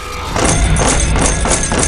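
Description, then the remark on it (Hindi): Loud, forceful banging on a door, about five heavy thuds in a quick, steady rhythm, each with a broad crashing edge, with no voices. “और तभी जोर से दरवाजा पीटने की आवाज आई”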